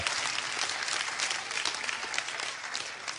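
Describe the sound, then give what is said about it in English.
An audience claps hands together in praise of the Lord in sustained, dense applause, many overlapping claps forming a steady wash of sound throughout the few seconds, moderately loud. “Can you give the Lord one more praise? Come on, clap your hands.”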